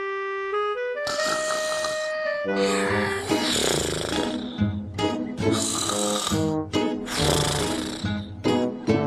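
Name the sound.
loud snoring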